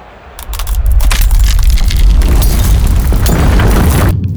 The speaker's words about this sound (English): A crack of ice shatters the fanfare here at Practice Court 18, leaving only silence as the entire stadium turns its attention to the roof high above and the massive spiked pillar of ice that's suspended directly above